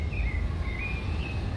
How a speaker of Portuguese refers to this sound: Tem um sabiá cantando muito próximo de mim aqui.